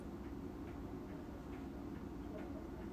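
Faint, regular ticking of a hand-wound wristwatch from Showa 45 (1970), a Season Homer watch of the kind used by Japanese National Railways staff, roughly two soft ticks per second, over a steady low rumbling background with no one talking.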